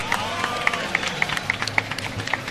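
A round of applause from a group, with sharp claps scattered across a steady wash of crowd noise. The clapping holds at a moderate level for a couple of seconds, with no voices standing out.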